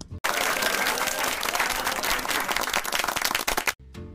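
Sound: hand clapping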